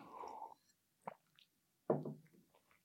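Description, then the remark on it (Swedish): Water being poured into a small glass: a short splashy pour, then a single soft plop and a louder gurgling splash, with no one talking. “medan du häller upp ett litet glas vatten”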